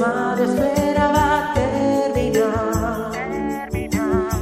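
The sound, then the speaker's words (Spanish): A song plays loud and steady, with a sung melody wavering over full instrumental backing and a regular, punchy low beat throughout, with no one talking over it. “Venga, pues eh, escuchamos la canción y luego nos despedimos.”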